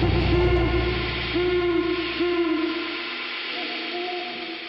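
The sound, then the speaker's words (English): Alarm hooters, activated after an escape of toxic gas, blare in loud, steady droning tones with a buzzy edge, several overlapping blasts swelling and falling before the sound thins out toward the end. “Hooters are activated.”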